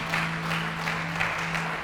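An audience claps loudly for Jesus in sustained applause, a dense steady patter of many hands with a low hum running underneath, no voices standing out.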